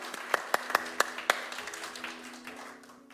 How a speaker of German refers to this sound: Gebt ihnen mal einen Applaus.